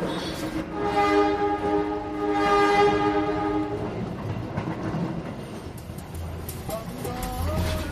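A loud, sustained train horn blares for several seconds over the steady rumble of a moving train, then fades, leaving the rolling clatter of rail cars and wheels on track.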